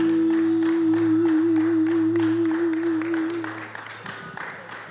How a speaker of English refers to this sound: that's the longest hand clap I've ever heard. kept on going. That's, that's good.